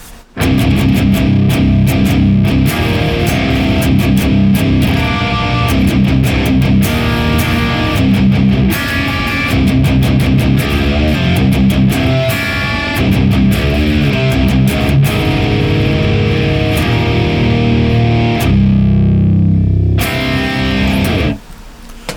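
A heavily distorted electric guitar plays dense, chugging riffs with sustained chords, loud, heard through a blend of Boss IR200 and Thermi FA1 Uber 75 impulse responses, with a brief quieter, more filtered passage near the end before the full tone returns.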